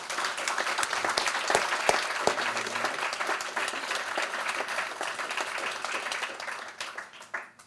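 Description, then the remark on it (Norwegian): An audience at a breakfast seminar applauds the panel steadily for several seconds, dense overlapping claps at an even level that taper off near the end, with a few brief voices mixed in. “Men først så tenker jeg vi skal gi eh, panelet vårt en kjempeapplaus.”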